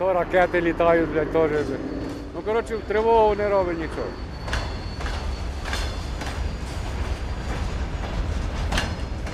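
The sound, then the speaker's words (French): A freight train with wagons full of grain rolls into the port of Odessa on the Black Sea, with a steady low rumble and intermittent metallic clanks from the wagons. A voice speaks over the opening seconds before the train noise takes over. “Et les trains arrivent ici sur le port. Les wagons sont remplis de céréales et ils vont être ensuite euh, transférés sur le terminal portuaire.”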